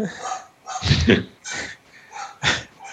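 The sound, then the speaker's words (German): A person's own dog barks several times in the background, a handful of short, sharp yaps with brief gaps between them, fairly distinct. “und dann äh, bellt mein Hund im Hintergrund.”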